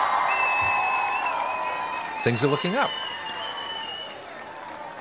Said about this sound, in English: Uh, let me try and play my my cheer here. Let me see if this works at least.